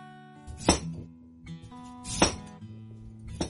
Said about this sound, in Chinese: 然后把它切成小块儿，